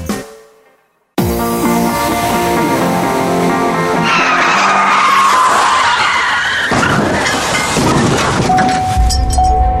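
After a brief quiet moment, car tires screech loudly in a long, sustained skid, followed by the noisy clatter and rumbling of a car crash that continues to the end. No voices.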